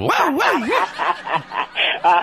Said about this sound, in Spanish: yo creo que haber sido del pastor alemán porque después me dieron ganas de ladrar.